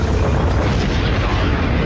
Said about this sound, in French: Mission sequence start. All engine running. Liftoff. We have a liftoff. 32 minutes past the hour. Liftoff on Apollo 11.